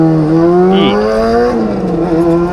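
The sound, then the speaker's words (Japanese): A motorcycle engine roars past, its loud, buzzing tone shifting in pitch as it goes by, with the engine drone filling the whole moment and no voices. “今日も、今日もバイクっすね、やっぱりこの時間はバイク多いですね”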